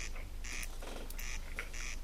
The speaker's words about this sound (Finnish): ja toinen ilmestynyt se ruisrääkän ääni, mikä kuuluu takaa. Mm-hmm jota en muista ikinä kuulleeni missään.